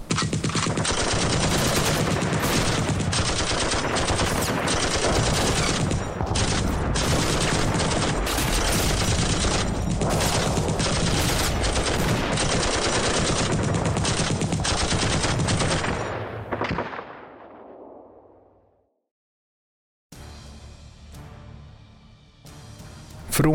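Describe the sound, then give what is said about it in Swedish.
Dense, continuous machine gun bursts mixed with heavy booming artillery blasts as German defenders on the Atlantic Wall fire machine guns, mortars and artillery at American soldiers landing on a beach; they roar loudly for about sixteen seconds, then fade out into silence before a quieter stretch of lingering noise returns. “Från Atlantvallen, alltså tyskarnas nätverk av befästningar, öppnade försvararna eld med kulsprutor, granatkastare och artilleri.”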